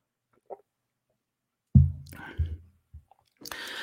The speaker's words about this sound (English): I'm going to take a sip of water here.